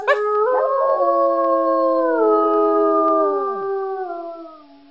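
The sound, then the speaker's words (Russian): A voice imitates a dog howling along to a wolf's singing: one long, steady, drawn-out howl that wavers slightly before sliding down and fading at the end. Fairly loud, with no talking. “Записнячу, А собака ему подтягивает.”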